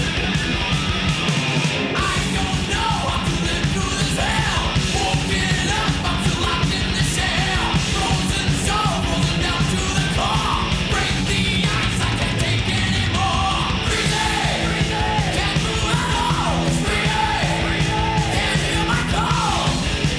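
A fast, aggressive early thrash metal song plays loud and dense throughout, with shouted vocals riding over driving distorted guitars and relentless pounding drums.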